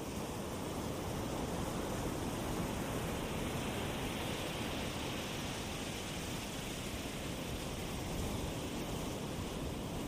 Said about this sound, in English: and the waves are gently crashing toward the shore right at your feet.